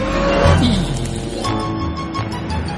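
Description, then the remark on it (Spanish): Cars pass along a busy street, a steady, loud engine rumble and road hiss filling the scene with a brief rising whine early on; no one speaks. “Cruza una calle esquivando los coches.”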